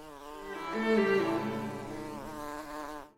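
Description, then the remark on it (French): A large fly buzzes in a continuous droning hum in a painter's studio, its pitch wavering up and down as it hovers, swelling loudest partway through before cutting off abruptly after about three seconds as it lands on the tip of a person's nose. “Une grosse mouche vient de se poser sur le bout de mon nez, mais je dois rester parfaitement immobile malgré tout.”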